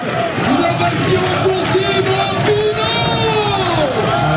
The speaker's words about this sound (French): Incroyable, incroyable image, incroyable ambiance. Ici, on se croirait dans un stade de foot.